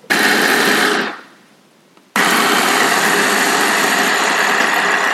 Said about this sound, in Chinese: 咱们现在把它们三个呢一块儿放到搅拌机里边，稍微打一两下就行了。我自己对这种包在馅儿里的，不管是包子、饺子还是这种西式的馅饼，我都觉得不要给它弄得太碎，不然嚼起来就没有口感了。